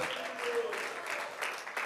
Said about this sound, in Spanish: Puede brindarle ese aplauso más lindo al que vive por los siglos de los siglos.